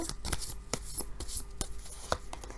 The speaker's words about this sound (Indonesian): Oke, tadi waktu ngocok kartunya nimpa-nimpa, loncat-loncat, nggak mau nurut ini kartu